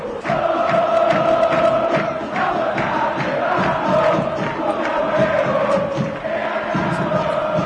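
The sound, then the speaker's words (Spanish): A huge football stadium crowd of Unión supporters chants and shouts in unison, a loud, continuous wall of voices with a sung, rhythmic melody carrying through the roar for the whole stretch. “Así ah, grita el público de Unión, escuchá.”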